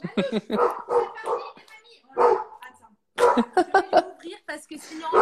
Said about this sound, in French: on savait qu'il y aurait un chien pendant le live, on, ne pouvait pas prévoir ce moment, euh, ce moment d'énervement du chien.